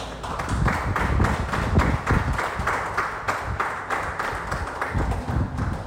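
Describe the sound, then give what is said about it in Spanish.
An audience applauding God together during a sermon, a dense, steady wash of many hands clapping that holds at a fairly even loudness for about six seconds, with no voices heard over it. “Entonces dale un abrazo, un aplauso a Dios.”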